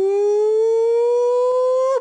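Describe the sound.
A single loud, sustained "woooo" from an Arkansas "pig sooie" hog-calling cheer, held for about two seconds and rising slowly in pitch. It has a bright, howl-like tone and nothing else is heard.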